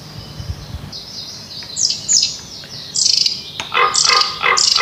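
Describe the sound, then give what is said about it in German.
Forest birdsong rings out in repeated bright, high chirping phrases, growing louder and busier toward the end, with a faint low rumble underneath and no talking. “Die Vögel entdecken.”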